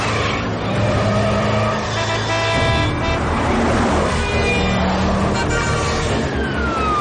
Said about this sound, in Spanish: Albert pisa el acelerador conduciendo temerariamente y adelanta los coches dando volantazos de izquierda a derecha.